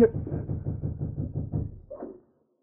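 A rapid run of dull, low knocks on a door, around ten evenly spaced raps over two seconds, followed by a brief faint sound before silence.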